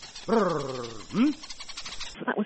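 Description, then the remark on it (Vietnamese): A Yao honey hunter searching for bees' nests in the Nyasa National Reserve, Mozambique, calls to summon a honeyguide bird: a loud, rolling trilled "brrr" held for under a second, then a short rising-and-falling grunt, followed by a few breathy sounds. “Và đó là tiếng động của một người thợ săn mật ong đang tìm những tổ ong ở khu bảo tồn quốc gia Nyasa ở Mozambique”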